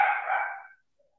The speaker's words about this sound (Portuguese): Ah, espera aí ela parar de latir.